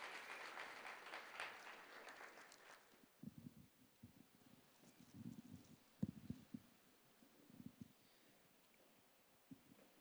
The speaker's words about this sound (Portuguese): Vocês podem aplaudir a Jesus?